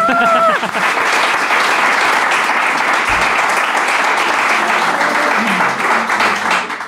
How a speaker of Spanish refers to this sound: Oigan un aplauso, sí.